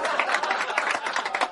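An audience at a talk show applauds as a performer bows on stage before telling a story, a dense, steady patter of many hands clapping, holding at an even moderate loudness for about a second and a half with no voices over it.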